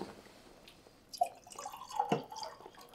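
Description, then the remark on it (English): Red wine, an American Pinot Noir, pours into a glass after a quiet start, a gurgling, splashing trickle with a few brighter glugs and clinks, steady at moderate loudness. Nobody speaks. “This is a perfect time for a little bit more of this uh, lovely uh, Pinot Noir from America.”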